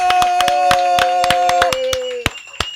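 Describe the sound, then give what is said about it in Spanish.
Scattered, uneven hand claps for a guest being introduced ring out loudly over a steady sustained electronic tone, the claps thinning to a couple of sharp final ones after the tone stops. “¡Venga ese aplauso!”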